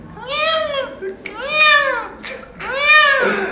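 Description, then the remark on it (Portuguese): A person imitates a kitten's meow three times in a row, high, thin, whiny mewing calls with rising and falling pitch, fairly loud, with no other talking. “se ele não quiser ser mais fotógrafo, ele vai ser é imitar gato. E o gato, fi, gatinho filhote é assim, gente.”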